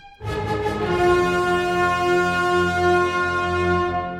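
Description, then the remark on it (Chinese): An orchestra plays a short-short-short-long motif as the music enters its development section: three quick, loud accented notes, then a long sustained chord that holds for several seconds, rich and full across the low and middle range. “它开始做发展喽，都还是噔噔噔噔噔噔噔噔噔噔噔，有没有？都是三短一长。”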